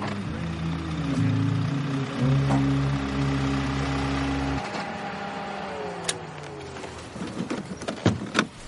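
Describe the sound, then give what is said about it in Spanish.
A car engine hums steadily, its pitch stepping down as the vehicle reaches a curve, slowly leaves the road and stops on the shoulder, then cuts out about halfway through, leaving quieter clicks, rattles and rustling. “El vehículo llega a una curva. Se sale de la carretera lentamente y se detiene en el arcén.”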